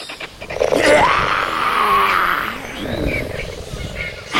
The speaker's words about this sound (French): Je vais rugir. Ça va les faire déguerpir direct.